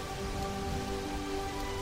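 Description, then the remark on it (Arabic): Steady rain falls at night in a continuous, even hiss, with a dense patter of drops on a hard surface and faint low rumbling underneath. No voices are present. “ولكنه توجه بحصانه تحت المطر نحو قلعه الملك اولا كي يقدم له هديه”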